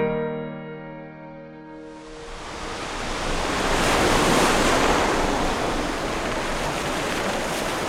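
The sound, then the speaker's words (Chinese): A sustained tone fades out in the opening seconds as a loud, rushing roar of stormy sea waves and gusting wind, a storm at sea that breaks a ship apart, swells up and keeps churning steadily to the end, with no voices. “船上遇到了暴风雨，结果船只裂开，贾克不幸溺水”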